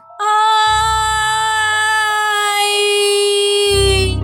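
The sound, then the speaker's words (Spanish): A loud, drawn-out mournful wail from a woman, holding one high pitch that slowly sags over about four seconds, with a low rumble underneath at times and no speech. “De repente escuché un grito de lamento que estaba lleno de tristeza y que claramente era de mujer.”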